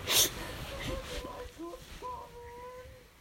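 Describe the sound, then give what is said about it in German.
A cat makes a few short, wavering vocal calls, with a drawn-out, slightly rising cry near the end, heard over faint background noise and a brief rustle at the start. “Kannst du dich bitte normal hinlegen, so wie jede andere Katze auch?”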